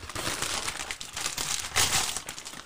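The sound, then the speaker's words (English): Continuous crinkling and crumpling of packaging, a dense run of rustles and crackles with a louder crunch partway through, as a large Amazon package is torn into and opened. No voices. “All right, we got a large Amazon package.”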